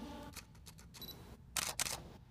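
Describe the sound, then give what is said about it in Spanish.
Camera shutter clicks: a few faint mechanical ticks, then two sharp, louder shutter snaps in quick succession near the end, with no talking. “Entonces, este, agarro la cámara y cuando escucho, aquí lo voy a hacer porque tengo mi cámara, cuando escucho”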